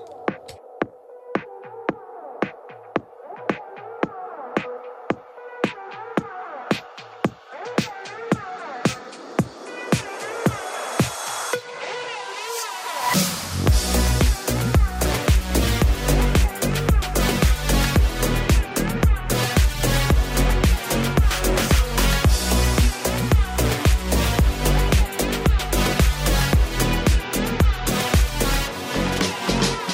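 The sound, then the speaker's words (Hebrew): A Russian electronic dance pop hit opens with sparse, evenly ticking percussive hits and synth tones, then builds and drops around twelve seconds into a loud, full beat with heavy bass and steady pulsing rhythm. “בואו נמשיך, נמשיך עכשיו עם איזה להיט ככה שתופס תאוצה בעולם, בשזם העולמי, הוא מגיע מרוסיה לדעתי”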